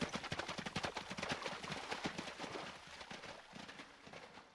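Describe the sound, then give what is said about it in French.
Horse hooves clip-clop in a quick, steady rhythm, a continuous run of sharp knocks that fades slightly toward the end as if moving off. “Puis il remonta sur la rive, enfila son armure en veillant à ne pas la faire cliqueter, enfourcha son cheval et reprit son chemin.”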